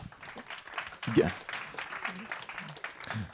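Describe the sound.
An audience applauds two guests invited to join the hosts on the set, a steady, dense wash of clapping that lasts throughout, moderately loud, with a few brief voices rising beneath it.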